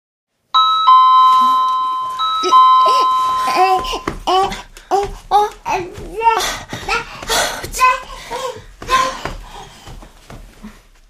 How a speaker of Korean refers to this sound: 초인종이 울렸다.